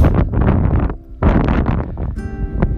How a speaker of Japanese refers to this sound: 今、私は畑で録音しております。炎天下のね、下で畑仕事をして、まあ、ちょっと今一息ついて録音しております。